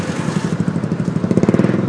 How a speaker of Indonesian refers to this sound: gue semangat lagi ada motor ini lagi nah ya beginilah resiko bikin podcast di jalan